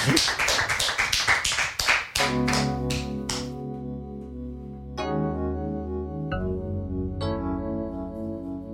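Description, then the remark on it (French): About two seconds of steady, rhythmic clapping from an audience at a singer's live performance on Atsugi Radio, loud and evenly spaced, then it gives way to sustained, ringing musical chords with no voices. “Des applaudissements, dingue!”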